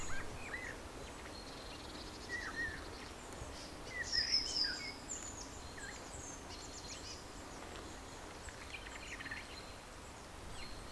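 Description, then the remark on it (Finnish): A blackbird's quiet subsong carries from about twenty metres away: soft, scattered warbling and twittering notes, faint and intermittent over a steady outdoor hiss, with a slightly fuller phrase midway. “Kyllä kaikkein hienointa tässä vaiheessa on kuunnella, kun parikymmentä metriä ehkä kantaa tuo mustarastaan hyrinä.”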